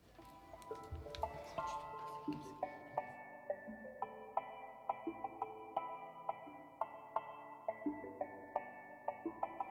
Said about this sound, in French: Laissons place à de la musique.